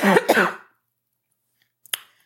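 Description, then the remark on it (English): A loud cough with a harsh throat-clearing quality, two rough bursts in quick succession, then silence broken by a faint short click. “Whoo, you can't cough like that in public.”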